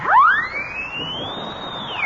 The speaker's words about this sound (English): his horn. It's got a siren in the mouthpiece. Listen.